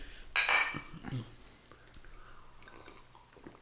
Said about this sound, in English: Okay, guys, All right, toast. Let's cheers. Salud.